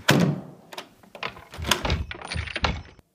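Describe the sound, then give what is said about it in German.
An apartment's front door swings shut with a heavy thud, followed by a few lighter knocks and rattles as the latch and frame settle, over about three seconds with no voices. “Die Haustür. Hatte sie jemand geschlossen?”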